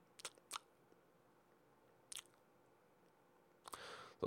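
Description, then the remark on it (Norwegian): A voice imitates wet lip smacking and chewing: a few sharp smacks spaced apart, then a quick cluster ending in a louder, noisy smack. “Uh, piping i nesa, surkling og smatting. Folk som smatter sånn.”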